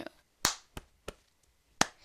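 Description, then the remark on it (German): Four crisp body-percussion hits, a mix of chest slaps, finger snaps and hand claps, land in a steady pulse with a short pause before the last one. No one speaks. “Und das einfach nur auf die Brust klatschen, schnipsen, klatschen, nochmal auf die Brust schnipsen, klatschen und dann kommt so ein Rhythmus draus.”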